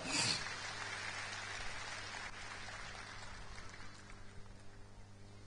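An audience claps in a dense, steady wash of applause for a woman who donated a Mercedes CLS car that evening; the applause peaks in the first moment and then holds fairly even for several seconds. No one speaks over it.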